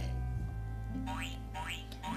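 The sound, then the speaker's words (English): Cartoon boing effects for a pet frog jumping out of a box: three springy, upward-swooping twangs in quick succession, playing over a steady low musical drone. “Uh oh, the frog jumped out of the box.”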